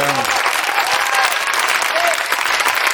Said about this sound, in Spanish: Bueno, eh, un aplauso para la banda, por favor.